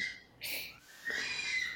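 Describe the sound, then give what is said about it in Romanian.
A baby girl, the speaker's infant daughter, makes faint, high-pitched squealing coos in the background, two short bursts, with no one talking over them. “Da, cred că se aude fata mea acolo în fundal.”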